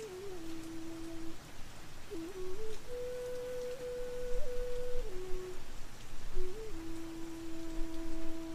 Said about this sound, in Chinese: 伴随着此刻环绕在你耳边的阵阵雨声，都被冲刷不见，离你远去，让你的意识世界愈发清澈、自然